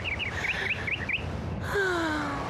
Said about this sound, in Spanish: Escuche el trinar de las aves del Palacio Real